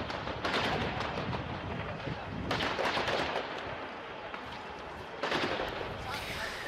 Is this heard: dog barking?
no